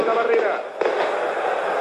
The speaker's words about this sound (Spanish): Pero usted va a tener que intervenir con esto de los petardos.